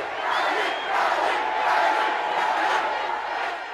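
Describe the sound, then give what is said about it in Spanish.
At a political rally for Nayib, a large crowd roars with continuous shouting, jeering and cheering, a dense wall of many voices that swells and stays loud throughout, with occasional whistles cutting through. “Y entonces ese evento fue, yo, recuerdo estar ahí escuchando los gritos, las rechiflas, las puteadas a políticos tradicionales.”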